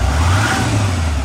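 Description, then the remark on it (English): The Cummins V8 turbo diesel engine of a 2016 Nissan Titan XD pickup truck, rated at 310 horsepower, revs with a deep, steady low rumble and a rising mid-range growl, loud throughout the short burst, with no one speaking. “This is the sound of the Titan flexing its 310 horsepower muscle”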